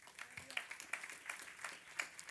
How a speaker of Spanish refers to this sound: Denle un aplauso al Señor esta mañana.